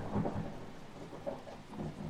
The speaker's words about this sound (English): Thunder's coming. The storm has begun. Right when I mentioned Hellblazer and Swamp Thing, it's very apropos. I was, I was, I was looking at your hands to see if you triggered a soundboard. nope, that's all natural outside.